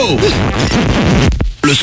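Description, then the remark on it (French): A short, loud, improvised freestyle radio jingle for Fun Radio, made with small microphones and a laptop: a voice warbles up and down in quick swooping pitches with noisy, chaotic backing, breaks off briefly, then returns with a final burst. “Donc on fait des jingles comme ça en freestyle.”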